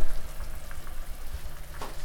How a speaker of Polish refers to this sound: I żeby woda mi nie wykipiała, wlewam najpierw połowę a kiedy już przechodzi w jednostajne bulgotanie, pieczenie się mięsa, jednostajne bulgotanie, nalewamy resztę.